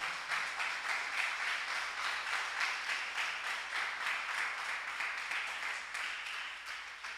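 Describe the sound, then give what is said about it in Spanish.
An audience applauds the King of Glory steadily for several seconds, a dense, crackling wash of many hands clapping at once that holds level, then eases off slightly at the end. “un aplauso al Rey de Gloria.”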